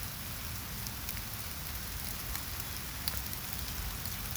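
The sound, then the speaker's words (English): Steady rain pattering on a surface, a dense, continuous hiss dotted with brief sharper drop ticks, even in loudness throughout, with no voices. “Listen to the rain. Enjoy the pitter patter the drops.”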